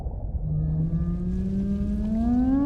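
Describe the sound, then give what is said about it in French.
A whale's long, low moaning call slowly rises in pitch over nearly three seconds, rich with overtones, sustained above a steady rumble of water and engine noise; the whale is close by, off to the right. “Oh waouh Regarde Il y a une baleine là sur notre droite je n'en ai jamais vu d'aussi près.”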